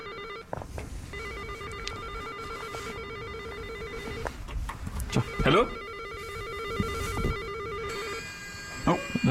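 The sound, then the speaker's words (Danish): An apartment intercom doorbell rings in a steady, repeating electronic buzz, fairly loud, as every bell is rung until someone answers, with brief bursts of voices and street noise around it. “Nu ringer vi bare på alle, indtil der er en, der tager den.”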